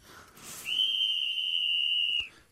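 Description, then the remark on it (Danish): A single sharp, steady whistle blast at a football match at Surfy Road stadium in North Jutland, Denmark, rings out loud for about a second and a half, shrill and piercing, then cuts off abruptly. No one is speaking. “hissigt fløjt.”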